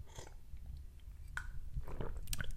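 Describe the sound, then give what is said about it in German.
Someone takes a sip of water: quiet wet mouth sounds, a couple of brief clicks and a soft swallow over a low steady hum, with no talking. “Ich nehme nochmal einen Schluck Wasser.”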